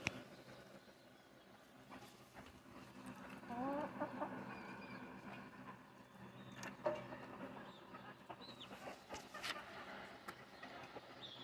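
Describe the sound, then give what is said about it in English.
Several chickens, begging while sitting on someone's foot, cluck and chatter in a steady, overlapping stream of short, insistent calls, with occasional louder squawks and faint rustling underneath; no one speaks. “so this is this part of the podcast is an ASMR of the sounds of chickens begging sitting on my foot.”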